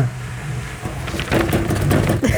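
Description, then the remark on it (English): A quick drum roll of fingers tapping on a wooden middle tabletop, dull, starting about halfway through and building into a dense flurry of knocks over a low background hum. “drum roll on this middle table sound like shit.”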